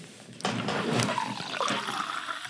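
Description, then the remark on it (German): Someone sips and swallows water, a loud, breathy slurping rush lasting about two seconds with small gulps, no one talking. “Ich trinke gerade einen Schluck Wasser.”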